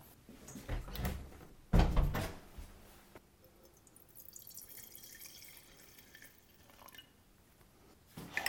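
Red wine, a 2017 Rioja (Finca El Bosque from Sierra Cantabria), is poured briefly into a glass, a short splashy trickle and a few drips after a sharp clunk, then quiet rustling and a faint clink at the end. No one speaks.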